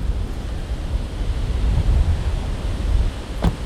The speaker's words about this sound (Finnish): Äsken säätiedotuksessa sanottiin, että noin 19 metriä on jatkuva tuuli ja puuskat siihen päälle. Otetaan pien tuntuma siihen, että millaista täällä tuulessa on ja katsotaan, että pystyykö täällä tekemään edes äänityksiä.